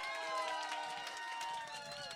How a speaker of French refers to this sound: Il y a des menteurs partout. Qui c'est qui applaudit, là? Non. C'est elle!